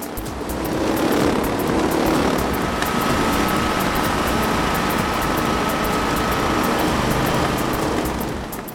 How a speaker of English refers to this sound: What follows is an example of a ruined recording because the microphone that was on the camera was too close to a generator during the race, not allowing to get a clear sound of the cars.